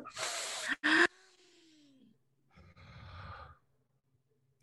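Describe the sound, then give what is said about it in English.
A person takes a deliberate deep breath: a deep, noisy inhale followed by a short sighing sound, then after a pause a long, breathy exhale, with no talking. “breathe in, uh-huh. breathe in.”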